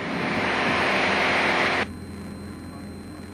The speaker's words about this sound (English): This time I decided to do a short field landing.